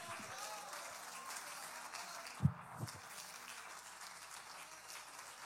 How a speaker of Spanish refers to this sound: Denle el aplauso al que vive y reina.